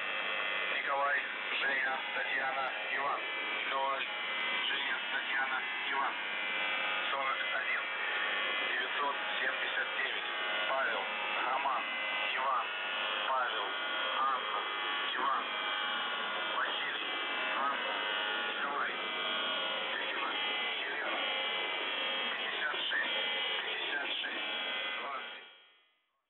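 A steady, droning shortwave radio buzz runs unbroken for nearly half a minute, thin and band-limited, with wavering static and warbling interference layered over it before it cuts off at the end.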